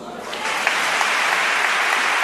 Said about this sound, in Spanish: Primera ovación para el pregonero después de hacer ese repaso por las advocaciones que van a procesionar en el Santo Entierro Grande y también las vísperas que han aparecido en el pregón en este primer instante.